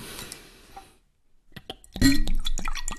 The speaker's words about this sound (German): Darf ich äh, mein Bier schon aufmachen? Ja, bitte, lass uns erstmal das Bier aufmachen und ähm, ja, es heißt Doppelbock Schlossbräu.